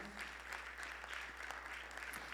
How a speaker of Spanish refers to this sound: Y denle un aplauso por eso al Señor.